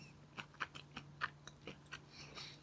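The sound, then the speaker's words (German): Crisp crunching of someone chewing a crunchy, nutty, not very sweet sesame snack, with about eight bright bites in a steady rhythm and a low hum underneath; no talking. “Sehr nussig auch. Riecht sozusagen, das Sesam kommt natürlich ganz intensiv raus.”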